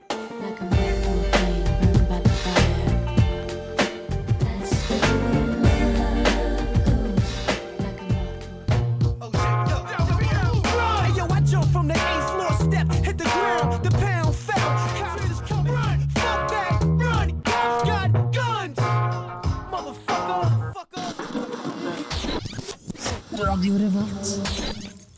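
A loud hip-hop and rock mashup track plays throughout, with a steady pounding beat, layered guitar-like tones and vocals over the top, dropping out briefly near the end before returning.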